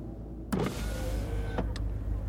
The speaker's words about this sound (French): Steed abaisse sa vitre et lance à Hastings.